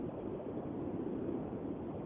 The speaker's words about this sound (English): no, I'm, I'm just uh, just driving home, and I just got on a uh, 80 mile per hour highway. So. Oh, nice. That's the sound of the road. Caller, the uh, sound of the uh, road beneath his wheels.